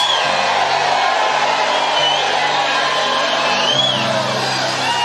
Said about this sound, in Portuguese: Mas foi Deus quem disse: Deixa eu ver como é que vocês vão receber. Grito.